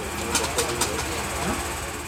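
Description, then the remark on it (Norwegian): An old tram in Rio de Janeiro, Brazil, in service for over 100 years, rumbles steadily uphill from the city centre to the Santa Teresa district, its low mechanical drone punctuated by a few sharp rattling clacks, with indistinct voices murmuring in the background. “Jeg er på tur med Å Bongino, den lille trikken.”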